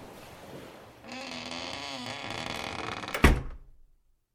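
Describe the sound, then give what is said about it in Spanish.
A door creaks and groans as it swings slowly shut over a few seconds, ending in a solid thud, then quiet. “La oscuridad me engulle de nuevo y dejo atrás el viento, los sonidos de la noche y la inminente tormenta, mientras la puerta se va cerrando poco a poco tras de mí, hasta que todo desaparece.”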